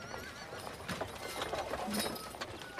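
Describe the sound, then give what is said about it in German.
Horse hooves clip-clop in an uneven series of sharp knocks over a noisy, busy background, with some murmured voices mixed in. “Ihr sattelt oder lasst die Pferde bei den Stallungen.”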